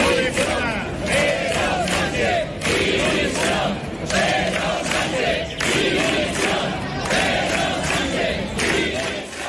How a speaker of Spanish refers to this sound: la provincia de Cádiz, la concentración fue en la Tacita de Plata, donde se reunieron, según la delegación del gobierno, unas 3.800 personas cifra que dobla el Partido Popular hasta llegar a 7.000 asistentes. Y este era el sonido de la manifestación.